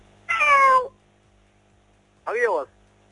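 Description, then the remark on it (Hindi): A person imitates a cat with two drawn-out meows as the first of three requested animal-sound imitations, the first longer and wavering, then a short pause before a second, rising-and-falling one. Both are loud, with no other sounds. “हाँ बिल्ली नु हैजा है होंदा है ना पता नहीं क्या था ये कौन सा जानवर है मुझे तो तुम ही लगे हो”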